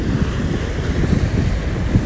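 Steady outdoor seaside ambience at a harbor swimming beach on the east side of Hachijō Island, Japan, on a sunny morning: waves washing with gusting wind buffeting the microphone, a continuous low rumble without any voices.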